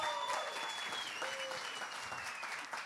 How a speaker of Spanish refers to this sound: Y el estudio te da un fuerte aplauso también.